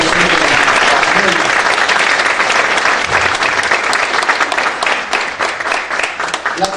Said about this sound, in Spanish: Dale un fuerte aplauso.